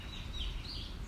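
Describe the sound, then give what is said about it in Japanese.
Faint, high bird chirps and twitters carry through an outdoor ambience with a steady low rumble, continuous over a brief moment, with no one talking, recorded on a morning walk in a wooded part of a park in Okinawa in December. “某公園よりお届けしておりますちょっと森っぽいところがあってその中から久々にね外ライブです外外収録しておりますちょっとねあのチュンチュン鳥の声が 聞こえるかと思うんですけれどもあのそれもまた心地よい自然音と捉えて聞いていただければと思います”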